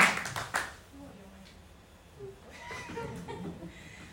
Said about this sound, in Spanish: Muy bien, un aplauso fuerte ahí.